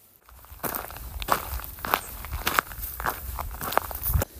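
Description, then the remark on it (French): Steady footsteps of a person walking outdoors along a path, about two steps per second, moderately loud with a gritty texture over faint low rumble, forming a regular pulse. No voices. “Voilà, ça c'est mes pieds sur le chemin.”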